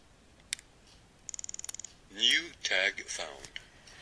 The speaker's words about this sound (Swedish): Och då hör vi ett litet tickande ljud och sen rösten som säger New Tag Found. Och Varför det här inte är översatt eh, till svenska vet jag inte riktigt, men det betyder i alla fall ny etikett funnen.